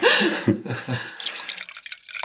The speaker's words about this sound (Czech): Já bych vám doporučil jednu věc, abyste si vlastně přelili to víno do obou skleniček, abyste si mohli porovnávat. Mm. Jo? To znamená, přelíte si je jenom.